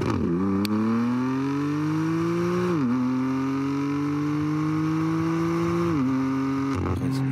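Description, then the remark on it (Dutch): A sports car fitted with winter tyres accelerates hard, its pitch climbing steadily, dropping briefly at two gear changes, then rising again. The engine is loud and continuous throughout, with no one talking. “ik zag dat die auto nu wel inmiddels op winterbanden staat”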